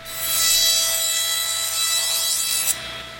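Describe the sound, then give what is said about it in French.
A small circular saw whines steadily as doctors cut through a plaster cast on a double-fractured arm, a continuous high buzzing that cuts off abruptly near the end. No one speaks. “Et quand on m'a le plâtre, c'était avec une scie, une petite scie ronde.”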